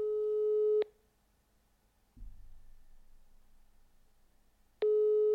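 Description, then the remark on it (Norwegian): A steady phone ringback tone sounds for almost a second as a call is placed to a friend, falls silent through a long gap with a faint low rumble, then the tone returns at the end, like an outgoing call ringing. “Det er ikke sikkert han tar telefonen. Han er litt dårlig på å ta telefonen.”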